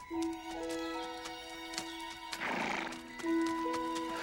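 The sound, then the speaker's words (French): A horse being ridden on a fine day whinnies loudly, its neigh rising and falling, while a steady clip-clop of hooves taps underneath through the whole stretch. “dans un de mes rêves où je crois me promener à cheval par une belle journée”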